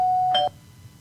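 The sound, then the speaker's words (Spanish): A single electronic doorbell chime rings out clearly, a steady bright tone with a second higher note joining briefly before it cuts off, leaving quiet room noise. “¿Toco el timbre? O ya no, el timbre ya, ya, ya sonó.”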